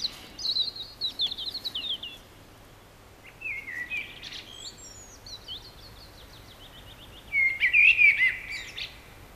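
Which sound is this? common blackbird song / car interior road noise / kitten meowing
common blackbird song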